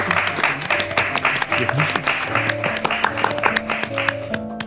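Steady audience applause for a guest at the end of a conversation, a dense patter of many hands clapping at an even loudness for several seconds, with faint tonal sounds and a voice or two mixed in underneath.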